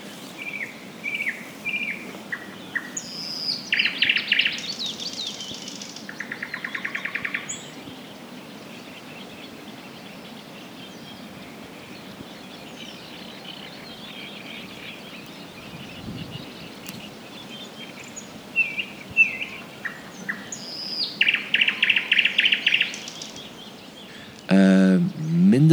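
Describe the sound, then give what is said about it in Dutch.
A thrush nightingale sings loud, separated phrases of clear whistles, rapid clicks and rattling notes, with pauses between bursts, over a steady background hiss of insects or wind. “Ehm, maar die, die Noordse nachtegaal, ik ben erin geslaagd hem op te kunnen nemen.”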